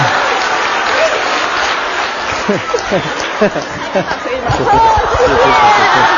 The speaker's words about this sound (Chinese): 来一下吧，好不好？大家掌声鼓励一下。